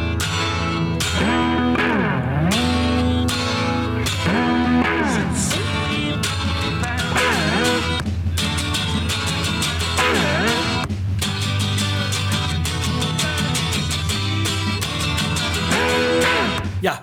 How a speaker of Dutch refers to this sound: Hoor je hem op die 12-snarige gitaar spelen. En je hoort ook nog een beetje de guy side vocal op de achtergrond. Hij zingt wat mee.